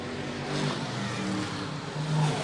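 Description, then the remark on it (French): Race car engines drone steadily around the circuit, including car 18 driven by Jean-Philippe Bergeron, a continuous moderately loud roar with rising pitch tones as cars accelerate past, without any voices. “Donc, euh, du côté des pilotes, présentement sur le circuit, vous l'avez vu, on a la voiture 18 la voiture de Jean-Philippe Bergeron.”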